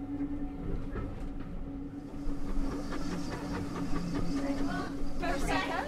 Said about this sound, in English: the beautiful countryside here in the Forest of Dean. just had my ticket clipped by the ticket inspector. There are probably about 30 people on this first train of the day. I would imagine that as the day progresses, the trains will get much busier.